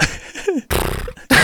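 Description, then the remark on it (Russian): A person imitates a horse, flapping their lips in a loud, sputtering snort, two rough bursts after a brief vocal grunt. “То ли это ветерок твои губы колышет.”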